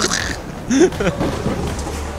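Low, rolling thunder rumbles steadily through a wash of rain-like hiss, fairly loud, with a brief voice sound rising out of it midway.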